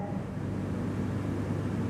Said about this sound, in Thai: แต่พอผมพูดถึงได้ยินเสียงแอร์ไหมจิตมันจะเข้าไปรับรู้เสียงแอร์ทันทีถูกไหมท่านถึงได้ยินเสียงแอร์แต่ตอนที่ท่านกำลังนั่งฟังผมเนี่ย ท่านไม่ได้ยินเสียงแอร์